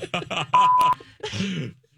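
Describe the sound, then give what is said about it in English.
A single steady censor bleep, a flat mid-pitched tone lasting under half a second, cuts over someone's speech; talking continues around it before and after. “No, it's just a series of beeps.”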